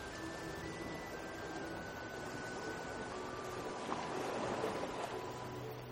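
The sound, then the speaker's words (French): Ocean waves wash steadily in a continuous broad rush, swelling a little louder partway through before easing back, with a faint low hum underneath and no voices. “Les vagues continuent leur spectacle pour vous, parfois plus intenses, parfois plus douces. Elles vont et viennent sans s'arrêter.”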